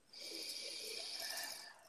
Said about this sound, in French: Alors, une respiration, on garde les yeux fermés, on respire à bloc